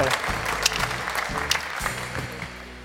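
A studio audience applauding steadily for a few seconds, a dense crackle of many hands clapping at once, with faint voices murmuring underneath.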